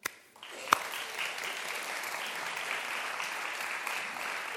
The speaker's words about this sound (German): Und deswegen möchte ich jetzt einen ganz, ganz herzlichen Applaus für Blake haben, der wird einmal nach vorne kommen und uns seine Geschichte erzählen.